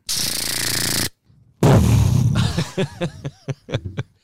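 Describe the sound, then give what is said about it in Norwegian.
Loud voice mimicking gunfire: a long hissing burst, a brief pause, another harsh blast, then a quick, uneven string of short vocal pops like rapid shots. “Det, når jeg vokste opp der, så var det skudd.”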